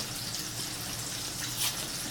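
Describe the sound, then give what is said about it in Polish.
Water bubbling as it boils in a pot while cooking, a steady, continuous hiss and burble heard for a couple of seconds with no one speaking. “Słyszę, że bulgowce woda się gotuje”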